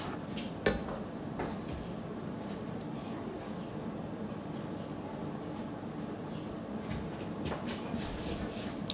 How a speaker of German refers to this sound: Ja, wir, man hört zwar, dass wir Rührei machen, aber man sieht uns halt nicht. Du musst es schon auf der Pfanne lassen, weil sonst brät es ja nicht.